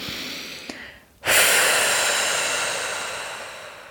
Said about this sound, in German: vielleicht indem du ein langgezogenes machst oder zumindest den Atem auch gerne mal hörst. Mach ihn möglichst lang, den Ausatmen.